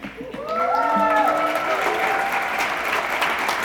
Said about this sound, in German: Applaus reicht nicht.